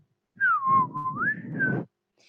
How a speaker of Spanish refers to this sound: Estando en la calle, tomó una flauta que llevaba colgada en el cuello y comenzó a tocarla.